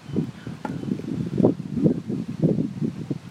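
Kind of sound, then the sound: nature, wind blowing through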